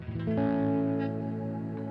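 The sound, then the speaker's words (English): An electric guitar chord played through an ambient reverb pedal on its full ambient reverb setting, swelling in and sustaining as a full, shimmering wash for a couple of seconds, fairly loud, with no talking. “That's a really nice, just full ambient reverb on the other setting.”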